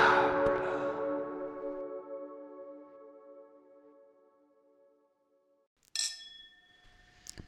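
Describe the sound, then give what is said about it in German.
Glasses clink together in a New Year's toast, leaving a bright ringing tone that slowly fades over several seconds, followed by a second, sharper clink near the end. No one speaks. “Prost.”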